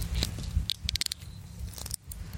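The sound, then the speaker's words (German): A screw cap, not a cork, twisting off a bottle of sparkling drink outdoors in the afternoon sun: a quick run of sharp, crackling clicks as the seal breaks, ending with a brief bright burst, over a low steady background hum. “Sie hören das Öffnungsgeräusch.”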